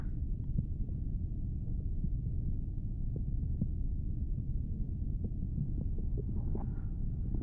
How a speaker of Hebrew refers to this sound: קצת צלילים של אה, לחץ דם. זה מעניין זה.